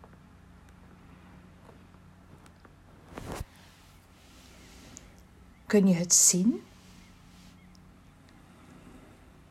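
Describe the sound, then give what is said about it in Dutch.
Steady outdoor ambience at a beach by the sea on a warm day: a low, constant rumble of wind and waves, a brief louder gust partway through, and a short spoken phrase near the end. “En ja hoor, we zijn aangekomen aan het strand.”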